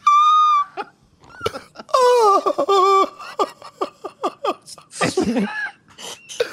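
Someone wails and sobs theatrically, long high-pitched cries giving way to a string of choppy, gulping sobs and a final strained outburst.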